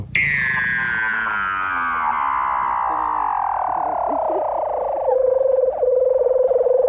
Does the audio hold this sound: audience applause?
no